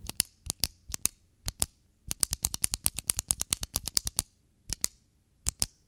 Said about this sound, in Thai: What's that noise What are you doing Stop clicking the pen That's the sound of pen clicking